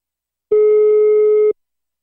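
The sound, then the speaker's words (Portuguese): A single ringback tone on a phone call: a steady, mid-pitched electronic beep lasting about one second, loud and clear, with silence before and after and no talking. “Ó, Tá chamando.”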